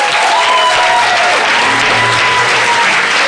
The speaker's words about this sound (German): Seid ihr bereit für einen dicken, schallenden, größten Applaus des Tages?